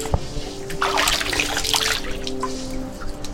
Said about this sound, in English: Yeah. Spring water. It's better than Arrowhead. Look at how crystal clear that is. And it's the source of life. We can't live without it.